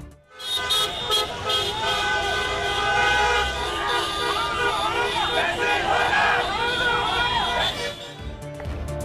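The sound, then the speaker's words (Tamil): Many vehicle horns blare together in a sustained, overlapping chorus of honking, loud and continuous, with a crowd's murmur and traffic rumbling underneath throughout, as people in Sri Lanka honk their horns in a protest against the government. “இலங்கையில் அரசுக்கு எதிராக ஹாரன் அடித்து போராட்டத்தில் ஈடுபட்ட மக்கள்”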